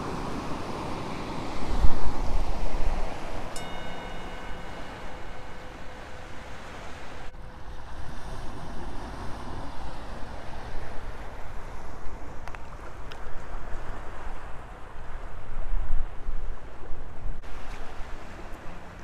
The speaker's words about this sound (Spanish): con esta maravilla de espectáculo de olas y de luz de la madre.